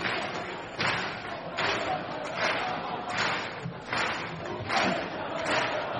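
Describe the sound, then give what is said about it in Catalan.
A basketball arena crowd at the Congost applauds and chants during the Catalan team's game against Argentina, in very high heat: a loud, steady roar pulsing with rhythmic surges roughly every second, with no single voice standing out. “Un autèntic partidat i això el públic ho està reconeguent doncs, amb aplaudiments.”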